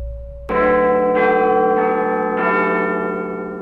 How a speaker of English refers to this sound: So you can imagine the arrival of Her Majesty Queen Victoria, God save her, at the state opening of Parliament might very likely result in a tuneful little melody. Bing bong ding dong.